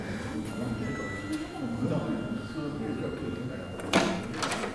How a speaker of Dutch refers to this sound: Zodra de deur van de kerk opengaat, wordt het stil.